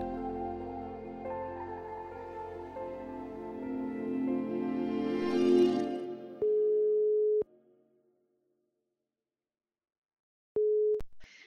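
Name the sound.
telephone ringing tone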